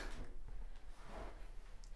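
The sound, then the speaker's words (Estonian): A door rattles and thumps as someone tugs and jiggles it, the repeated scraping knocks suggesting it is stuck shut; the handling is continuous, with no voices. “uks jäi vist kinni, et ma lähen otsin tööriistad.”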